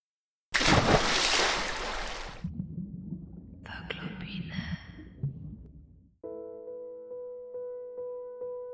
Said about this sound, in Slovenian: Kaj je to, reka?